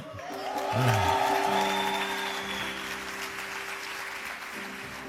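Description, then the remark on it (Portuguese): A church audience cheers and applauds the news of their graduates' service, a dense wash of clapping with whoops and shouts that swells in the first second and holds steady, loud and sustained, for about five seconds. “Isso é uma vaia ou é uma manifestação de alegria? Então manifesta direito, né?”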